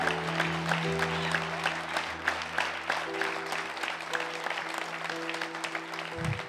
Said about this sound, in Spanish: ¡Ay, Dios mío! Dale un, un aplauso al Señor.